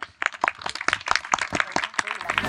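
An audience sitting out in the sun applauds with dense clapping that keeps up steadily throughout, many hands striking in an irregular rapid patter.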